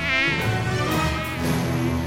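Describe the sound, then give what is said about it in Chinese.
A mosquito buzzes steadily for about two seconds, a loud, continuous whining drone with a slightly wavering pitch and no voices. “是被蚊子咬到了吗？”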